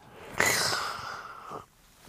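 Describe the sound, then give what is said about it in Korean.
A voice impersonates the strained, nasal line of a raccoon character from the Korean film Tazza, a single sustained burst of a little over a second with a sharp onset, fairly loud, then fading to near silence. “제가 우리 면목고 선배님 문세윤 씨에게 이 영화에 나온 너구리 성대모사도 전수를 받았었는데”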